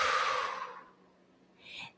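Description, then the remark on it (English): A long, airy exhale gradually fades out, followed after a short pause by a brief, soft intake of breath, done as a breathing exercise. No talking. “One is that you can just simply do an in and out, right? So, and you just exhale.”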